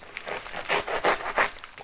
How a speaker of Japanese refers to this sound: で今これそんなこと言いながらこのねパン専用のノコギリで切ってるけど